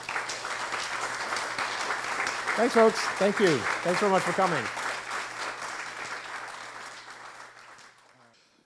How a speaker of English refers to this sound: Can we give a round of applause for …?